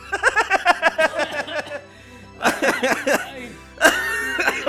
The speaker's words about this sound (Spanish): bueno, ya estamos viejos cuando cada risa termina en una tos.